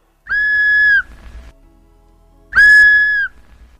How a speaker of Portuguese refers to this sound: Um tempo depois, começamos a ouvir um assobio. Fomos todos correndo para o mesmo lugar e continuávamos a ouvir o assobio.